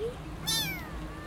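A single short cat meow that rises briefly and then slides downward in pitch, over a faint low background hum with no talking.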